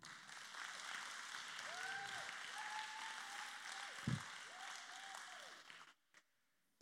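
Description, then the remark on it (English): An audience claps together in a dense, steady burst of applause lasting several seconds, with a few voices rising over it before it cuts off abruptly into silence. “If you're free, clap your hands.”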